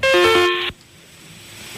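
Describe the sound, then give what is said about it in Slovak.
A loud, bright electronic telephone ringtone for an incoming call plays a quick stepped melody for under a second, then cuts off abruptly, leaving a faint hum and near silence. “Ale už máme aj, aj telefón.”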